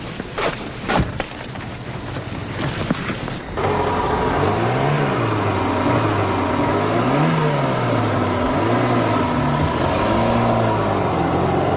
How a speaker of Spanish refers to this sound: Se marchan en el coche formando una inmensa nube de polvo que se levanta a su paso. Luego van por un camino de tierra.